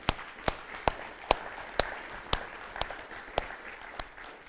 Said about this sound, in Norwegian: Vi klapper for barnehagen, vi klapper for alle som har tjeneste i nærmiljøsenteret.